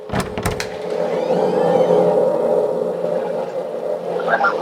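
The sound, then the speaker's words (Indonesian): A dark, eerie ambience track hums steadily with an added low tone of about 18 hertz underneath, opening with a few sharp clicks and carrying faint wavering, whale-like moans through the middle. “Jadi ada ada ambience plus frekuensi tertentu”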